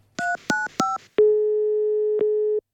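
Three quick electronic keypad beeps, then a long steady telephone ringing tone on an outgoing call to Hotell Borgholm, with a faint click partway through. Clear, with no voices.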